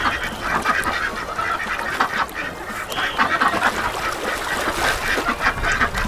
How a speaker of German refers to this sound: Oh, schau mal, Ivo, da ist ein kleiner See mit Enten.